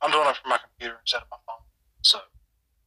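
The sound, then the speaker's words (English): A voice over a call keeps cutting out, its words chopped into short bursts separated by abrupt gaps of silence, with a thin, slightly robotic distortion on the speech. “Yeah, you're kind of cutting out.”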